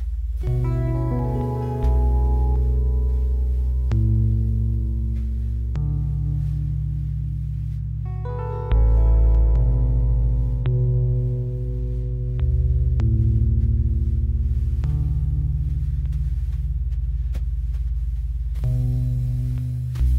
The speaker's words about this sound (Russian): Последний эм, тоже пример для типа эмбиента.